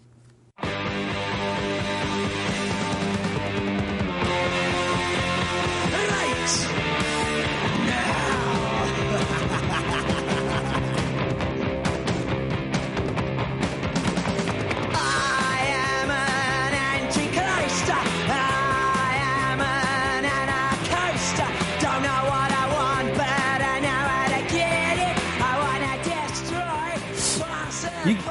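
A loud, driving punk rock song blasts continuously after a brief silent start, with dense distorted guitars, pounding drums and shouted vocals filling the whole stretch at a steady high volume.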